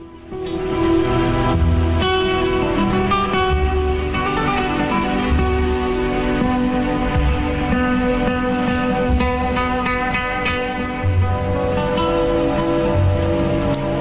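A slow classical guitar adagio played with a slight flamenco touch in how the strings are plucked: plucked melody notes ring over sustained low bass tones at a steady, moderate volume throughout, with no voices.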